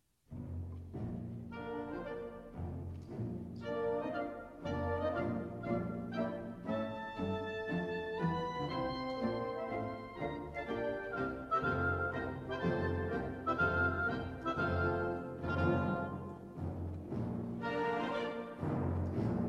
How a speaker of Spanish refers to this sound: Vamos a ver si ahora se escucha un poquito mejor esa marcha militar de entrada de Pizarro.